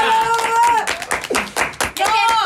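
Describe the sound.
Audience applause, a loose patter of claps mixed with voices, while a sustained high whoop or whistle rings out at the start and returns near the end.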